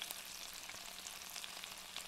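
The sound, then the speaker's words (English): Steady, hissing sizzle of salmon frying in a pan, dotted with small irregular pops and crackles, heard fairly quietly with no voices. “Salmon. Yeah. With some like sounds, like popping maybe?”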